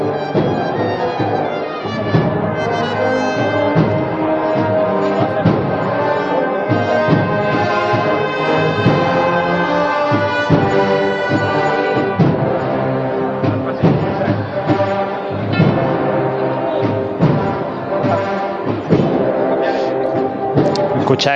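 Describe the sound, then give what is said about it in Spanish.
The band plays loud for the whole stretch, with the bell the group carries ringing among the brass and a steady rhythmic beat, over crowd noise and a few voices. “también el sonido de la campana de, la, que lleva la agrupación musical ….”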